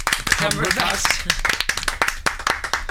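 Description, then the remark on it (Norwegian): A small round of applause for Bernhard Cumbercock: a few hands clapping in quick, uneven bursts, with a voice talking over the start before the clapping carries on alone. “Nei, men Det er vel en liten applaus til Bernhard Cumbercock, det.”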